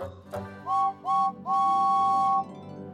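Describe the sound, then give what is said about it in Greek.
The whistle of James, the red steam train with the number 5, sounds three times, two short toots followed by one long sustained blast, clear against a low rumbling background. “Ο James είναι πολύ περήφανος για το υπέροχο κόκκινο χρώμα του και έχει μια κόρνα που ακούγεται κάπως έτσι.”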